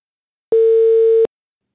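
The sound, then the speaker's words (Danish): A single steady ringing tone from an outgoing phone call to a women's football coach, one loud, even beep lasting under a second, heard alone with silence before and after and no voices. “Derfor skal vi nu ringe til Lene Terp”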